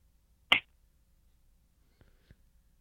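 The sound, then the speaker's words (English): A single sharp, loud, crisp smack of a paddle as a person spanks themselves in a demonstration, followed by quiet near-silence with a couple of faint soft taps afterward. “Because I have one of my paddles right now. Swing away.”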